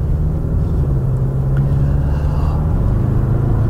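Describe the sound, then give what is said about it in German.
A four-cylinder diesel car engine runs steadily with a deep, constant rumble and low droning hum, fairly loud throughout, with no change in pace and no voices. “Also auch wenn es so ein Vierzylinder-Diesel ist, der passt gut zum Charakter des Autos”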